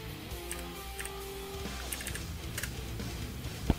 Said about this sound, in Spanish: Perdónenme, estoy escribiendo unas cosas en mi teclado.